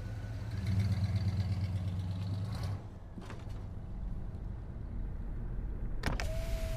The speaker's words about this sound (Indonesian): Aku membuka kaca jendela mobil yang telah kami kendarai hampir 8 jam perjalanan dari Tasikmalaya menuju desa Beji.